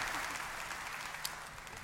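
A crowd applauds a family steadily, a dense wash of many hands clapping at once, sustained and fairly even throughout with no voices standing out.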